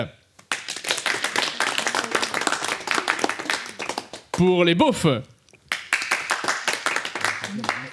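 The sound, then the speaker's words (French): An audience claps for the team called the biquettes in a joke contest, measured by an applause meter: a dense, steady burst that breaks off briefly while a voice calls out over a short pause, then resumes loudly for a few more seconds. “Je vais demander quand même l'applaudimètre pour les biquettes.”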